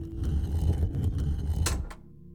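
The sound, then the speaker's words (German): A low, steady grinding rumble builds briefly as a stone pillar is turned by hand, then a sharp mechanical click snaps out clear just before everything drops to a quiet, faint hum. “Ein Klicken war zu hören.”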